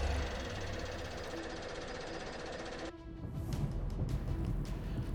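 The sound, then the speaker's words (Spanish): A Ford pickup truck engine clatters with a steady mechanical knock, then abruptly shifts into a louder, rougher rumble as it speeds off from a factory at full speed. No one speaks. “Arranca la Ford Pickup a toda velocidad.”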